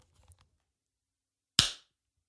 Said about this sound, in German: Ich nehme schon auf. Dann klatsch doch einmal.